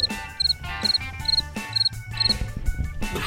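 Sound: cricket chirping sound effect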